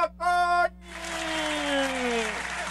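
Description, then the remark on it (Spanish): A short vocal shout, then steady applause from a crowd lasting a couple of seconds, with a falling whoop riding over the clapping. “¡Aplausos!”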